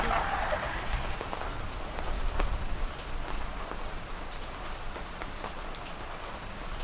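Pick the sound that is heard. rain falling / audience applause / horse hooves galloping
rain falling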